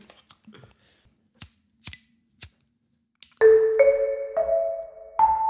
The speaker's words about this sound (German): Ich mach mal die Kerze an. Mach unbedingt mal die Kerze an.